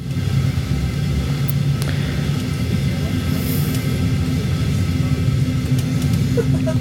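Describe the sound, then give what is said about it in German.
Steady, heavy low rumble inside a moving train, with a constant droning roar, faint rattles and squeaks, and no talking. “Mal schauen, ob ich das jetzt noch im Zug überarbeiten kann und dann hochladen, sobald ich zu Hause bin, was dann um halb eins ist.”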